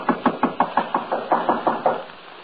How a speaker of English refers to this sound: standing there knocking, I suddenly realized that the door was ajar.